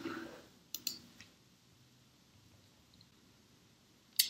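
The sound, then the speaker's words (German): A few quiet, sharp computer mouse clicks, a quick pair near the start, a softer one after, then a single click near the end, over a faint background hiss, as someone clicks a heading to jump to a chapter in a document. “Dann könnten Sie hier einfach auf 3.1 klicken und der Cursor springt direkt zu dem Kapitel 3.1.”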